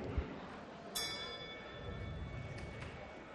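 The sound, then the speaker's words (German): A bell is struck once in a hall to start round two of the Fritz Kneipenquiz final, signalling all phones away; its bright metallic tone rings on for a few seconds over a steady hum, with two faint lighter taps near the end. “Dann äh, ertönt jetzt gleich die Glocke und das heißt für alle Handys weg.”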